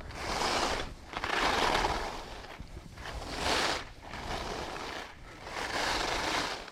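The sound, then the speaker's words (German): Skis scrape across hard, icy snow in a steady rhythm of loud, hissing swooshes, roughly five turns with brief dips between them, with no voices. “Skifahren auf hartem Schnee hört sich so an.”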